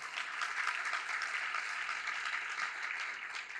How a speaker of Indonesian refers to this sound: Nah, baik, kita berikan tepuk tangan bagi Tuhan kita Yesus.